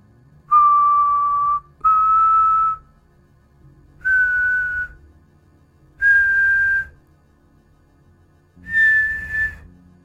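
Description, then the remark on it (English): A son whistles from far off in the distance: five long, steady notes, each held about a second with short pauses between, the pitch rising slightly from note to note, giving a slow, plaintive, mournful call. “From far off in the distance, the son whistled.”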